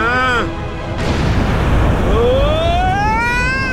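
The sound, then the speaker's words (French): A huge explosion of detonated explosives bursts out and rolls into a loud, sustained roaring rumble, with rising whistling tones sweeping over the blast throughout. “L'explosion a provoqué un énorme raz-de-marée.”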